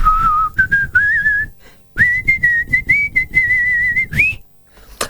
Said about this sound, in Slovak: A vlastne tam dokonca aj krásne píska, Vicky. Skúsim zapískať.